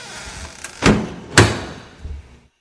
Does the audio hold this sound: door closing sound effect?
yes